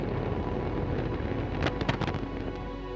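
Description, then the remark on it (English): A rocket that fails to gain altitude falls back to Earth as a pillar of fire and explodes on the launch pad, its fireball growing: a deep, continuous rumbling roar with a cluster of sharp crackling bursts in the middle, with no voices. “A pillar of fire slowly falling back to Earth before hitting the launch pad and exploding.”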